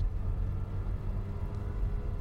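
The engine of a mobile therapy bus visiting a rural village rumbles in a deep, steady low drone holding at an even level throughout, with no voices over it.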